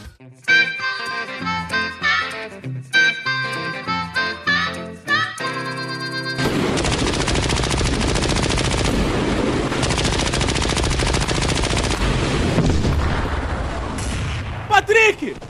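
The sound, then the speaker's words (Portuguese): A musical sting gives way to a dense, continuous roar of war gunfire in Palestine and machine-gun bursts that persists loudly for several seconds, with a few sharp reports near the end. “Eu fui atrás dele e descobri quem largou o podcast para ir lutar na Palestina na guerra. Vocês vão ouvir agora.”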